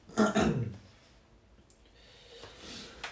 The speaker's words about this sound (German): Ich muss mal ganz kurz nochmal husten. Entschuldigung.